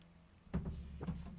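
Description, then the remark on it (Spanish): A quick sip of coffee from a cup, a soft slurp followed by a swallow and a faint murmur. “Permíteme tomar un sorbo de café antes de explicártelo.”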